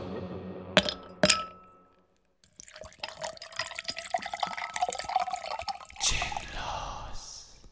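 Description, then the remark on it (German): Two bright, ringing clinks of glasses touching in a toast, a moment apart, followed by several seconds of liquid pouring and trickling into a glass. “Stoßen wir an?”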